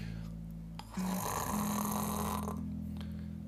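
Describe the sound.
A person mimics the loud snoring of a man of about 60 who fell asleep leaning back in his chair, face up, during a court trial: one long, rasping, droning breath lasting about two seconds with a buzzing rattle, then it trails off.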